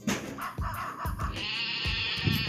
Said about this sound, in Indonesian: kambingnya mana kambing ini kambing yang ini kambing B ini